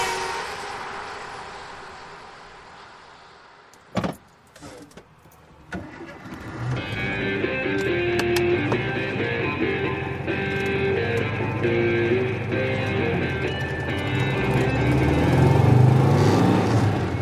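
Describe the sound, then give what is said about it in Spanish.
Cars drive by on a road: one vehicle's whoosh fades, a few brief knocks follow, then another car's engine hums in and grows steadily louder as it approaches. “Cuidado, que viene otro coche.”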